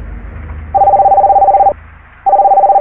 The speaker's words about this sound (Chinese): 就在同一时间，阿才的手机响了起来。